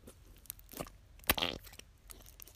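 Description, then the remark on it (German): A wet, squelchy squish of wobbly, translucent, runny slime with a brief fart-like burst, surrounded by soft crinkly, crunchy handling sounds, fairly quiet with no talking. “Das hat man jetzt gut gehört. Das war dieser Schleim. Also es war nicht ich, keine Sorge.”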